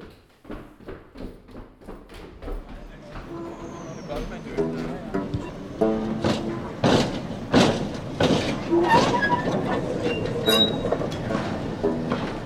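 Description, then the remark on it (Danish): A tram rumbles along its rails, wheels clacking in a steady rhythm that builds louder, with metallic creaks and squeals and indistinct voices faintly underneath. “Jeg må bestille og fange en sporvogn.”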